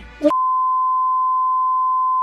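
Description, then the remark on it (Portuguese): A short burst of speech saying the name of a Brazilian-born Proud Boy is cut off by a loud, steady censor bleep, a pure tone that holds unbroken for about two seconds. “Eu vou falar o nome e vocês bipam.”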